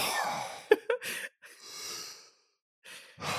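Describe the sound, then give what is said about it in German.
A person breathes slowly and deliberately through the nose: a long inhale and exhale with soft airy hiss, a brief snorting catch in between, then a pause and another breath starting, fairly quiet. “man atmet ja automatisch aus der Nase, oder?”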